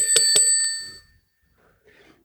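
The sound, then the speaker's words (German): A desk bell used in a card game is struck twice in quick succession, bright, its metallic ring lingering and fading over about a second before near silence. “Aber das war jetzt gerade ganz konkret Halligalli Party.”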